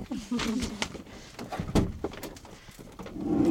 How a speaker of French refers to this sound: Euh, voilà, je vais ouvrir la porte pour train d'allaiter, donc euh, je vous laisse tranquille.